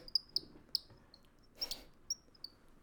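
A handheld bird call squeaks out a series of short, high-pitched chirps, about six in irregular succession, over a quiet background with no talking.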